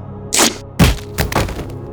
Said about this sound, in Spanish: Tomó la cabeza del hombre con la mano completamente extendida y la azotó contra la pared. El crujido fue repugnante.